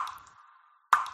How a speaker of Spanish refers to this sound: El radiador de un coche perdiendo agua así.